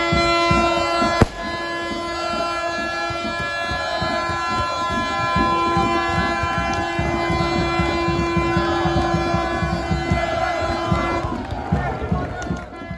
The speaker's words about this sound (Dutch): De Kralingers promoveren dus naar de Eredivisie en worden aan het einde van de avond opgewacht met heel veel vuurwerk. Nee, niet van die hooligans van ADO, maar gewoon van blije en uitzinnige Excelsior-fans.